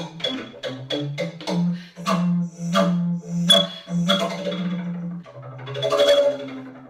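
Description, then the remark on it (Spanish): A double bass played solo by a woman: a quick run of plucked, percussive notes gives way to longer, resonant low tones that swell and fade, with no voices. “Escuchad lo que hace esta mujer con el contrabajo.”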